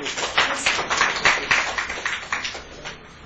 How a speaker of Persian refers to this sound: خب تشویق کنید دوستان رو خوب